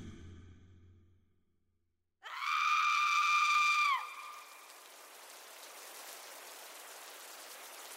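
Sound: rain falling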